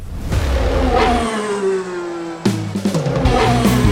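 A car engine revs hard, its pitch sliding down as it eases off, then snaps into a second sharp burst of revving. Loud and steady, with no voices.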